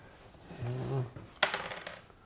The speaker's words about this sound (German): wir würfeln direkt los, oder? Mach mal los. Eine 2.